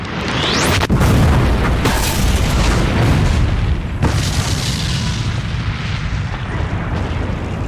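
A sudden loud car explosion bursts near the start, followed by a rolling roar of fire and debris that rumbles on heavily for several seconds, with a second jolt midway.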